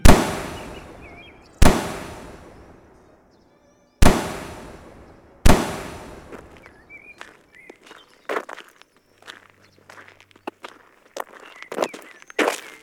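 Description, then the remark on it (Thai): Four loud, sharp gunshots from soldiers at shooting practice, fired during a break at camp, crack out a second or two apart, each trailing into a long echoing decay, followed by softer scattered clicks and pops; no one speaks. “ฟรานซิสกำลังนั่งมองทหารที่ฝึกซ้อมยิงปืนอยู่ในช่วงพักของการมาคาย”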